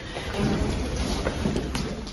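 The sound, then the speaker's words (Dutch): A heavy storm roars steadily, with dense rain noise and a deep low rumble filling the whole stretch, loud, with no voices. “Maar dat gaan we natuurlijk niet doen, want de storm is te hevig.”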